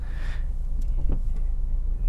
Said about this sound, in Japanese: 今日は帰りながら車の中からお届けをしております